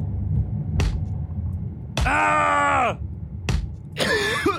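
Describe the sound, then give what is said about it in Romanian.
A man cries out in pain in two long, strained screams separated by short gasps, with groaning under a low background rumble, loud. “Ia mucles, mă, că-ți scot limba până în cur dacă mai țipi așa.”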